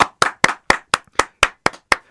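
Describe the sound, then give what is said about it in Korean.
Nine sharp hand claps in a steady, fairly quick rhythm, close and loud, with silence between each clap and no voices. “자, 오늘 나쁘지 않은 가창력 선보였으므로 박수 한번 치겠습니다.”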